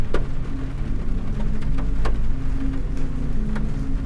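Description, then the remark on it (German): Rain patters on the window of a car being driven into town in a cold Kiel autumn, over a low, steady engine rumble and hum, with scattered sharp drops tapping at irregular moments. No one speaks. “Sie sitzt vorne im Auto, lehnt ihren Kopf an die Fensterscheibe und schaut in den Regen raus.”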